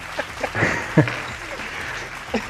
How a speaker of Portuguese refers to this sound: Caravana de Minas Gerais, por favor, uma salva de palmas.